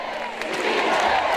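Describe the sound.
An audience applauding in a dense, steady wash of clapping that swells a little louder halfway through, with crowd voices mixed into the noise.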